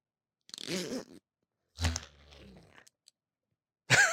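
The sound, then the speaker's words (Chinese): A plush, doll-like caterpillar attached to an interactive children's toy book is pulled by a child and then retracts, vibrating as it goes back in. It gives short crunchy, rattling bursts and a low buzzing vibration that hums for about a second, then another sharp burst. “然后因为呢，这毛毛虫它本身缩回去的过程，它会震动。”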